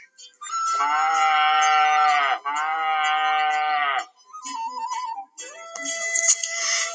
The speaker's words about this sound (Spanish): Sin embargo, de repente apareció preñada y parió un becerro color marfil, de piel brillante. Apenas cayó al suelo, mugió enérgicamente.